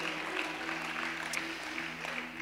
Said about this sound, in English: And everybody shout amen. Can you give the Lord a hand clap for his word?